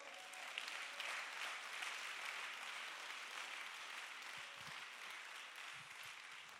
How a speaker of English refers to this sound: Come on, clap your hands.